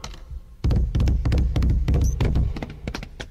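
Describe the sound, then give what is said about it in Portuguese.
Horse hooves clip-clop at a walking pace: a steady run of hollow, knocking hoof falls, fairly loud, with no voices over them. “Veja bem, vamos rodar para vocês uma cena do cavalo andando em inglês. Digo, em português, notem.”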